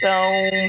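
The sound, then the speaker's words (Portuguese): A telephone rings with a steady, sustained electronic tone that is fairly loud, lasting under a second, with a brief dip near the end. “Ah, ah, telefone toca”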